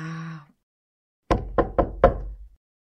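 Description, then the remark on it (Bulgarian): Four sharp knocks on a wooden door of the bears Mecho and Metsana's home as Lisko knocks, loud and in quick succession with a slightly uneven rhythm, after a short tonal sound and a moment of silence; no one opens. “Тропа дълго, сняг събаря, ала никой не отваря.”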